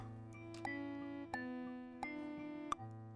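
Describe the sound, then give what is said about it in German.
A steady, bell-like synthesized tone with rich sustained harmonics, punctuated by four evenly spaced bright metallic strikes about every 0.7 seconds; processed and electronic-sounding, with no voices. It is audio resynthesized from its formants, with all levels evened out. “So, so ein glockenähnliches, fast Synthesizer-ähnliches Signal hört.”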